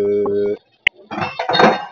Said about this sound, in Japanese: おーおーボロボロと、水筒が転びました。